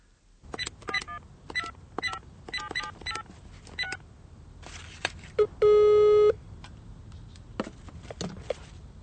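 A rapid series of short touch-tone beeps as a phone number is dialed, followed by a single sustained ringing tone and a few faint clicks, heard close and clear with no talking.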